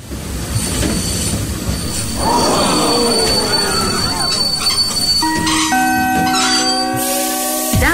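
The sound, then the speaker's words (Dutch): A train rumbles loudly, then its emergency brake, just pulled, engages with rising metallic squeals and sustained high-pitched screeching tones that build through the second half as the wheels grind. No one speaks. “Er is zojuist aan de Nico-noodrem getrokken.”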